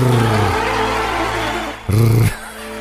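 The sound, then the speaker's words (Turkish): A voice produces a rolled R trill with a vibrating tongue, a buzzing, engine-like rattle held for a few seconds, then a short, louder burst near the end. “oradaki R'yi böyle hani değil de dili ve e, dilini titreterek baydamar rrr”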